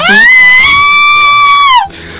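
A shrill, high-pitched short scream held for almost two seconds, loud, with a slight rise in pitch before it cuts off abruptly into quiet.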